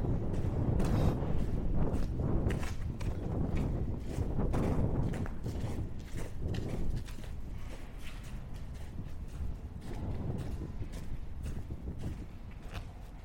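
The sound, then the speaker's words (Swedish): Wind buffets the microphone in heavy, continuous low rumbles and gusts, with scattered thumps and rustles on the mic and no clear talking. “Nu blåser det lite, ber om ursäkt om du bumlar i micken.”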